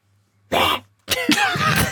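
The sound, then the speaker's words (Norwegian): A person imitates a baby tiger's growl, loud: a short raspy burst, a brief pause, then a longer gravelly, throaty rasp. “Det var babytiger.”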